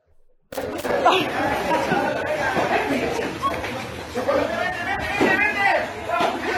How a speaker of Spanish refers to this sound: Una vez más se están liando golpes los transportistas. Tenemos hasta con audio inclusive.